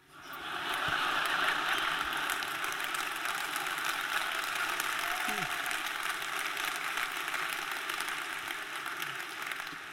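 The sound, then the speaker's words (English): Steady audience applause fills the whole stretch, a dense, even wash of many hands clapping at a consistent, fairly loud level with no voices standing out above it. “assume, assume you're clapping because I have self control.”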